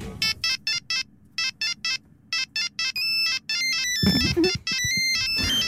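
An old mobile phone ringtone plays a quick, bright electronic melody of short repeated beeping notes in rapid bursts, loud and insistent, with a low rumble underneath and a busier stretch near the end.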